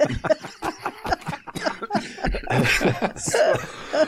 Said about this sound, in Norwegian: så brøt du ut i ei voldsom hostekule